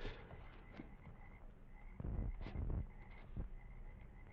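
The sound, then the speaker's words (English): Frogs croak in a steady night chorus, with a thin insect-like hum above and a few louder croaks standing out around the middle. No voices, just dense, low-level jungle ambience. “I could hear nothing but the rustle of palm thatch along the eaves, low creaks from the pilings underneath the bungalow, the soft night sounds from the jungle.”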